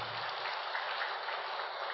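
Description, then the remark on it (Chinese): An audience at a Buddhist teaching talk claps steadily throughout, a dense, even wash of many hands with no pauses, holding a constant moderate loudness and no voices heard over it. “先鼓掌，待会儿再说吧。”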